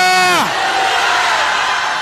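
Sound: audience shouting and cheering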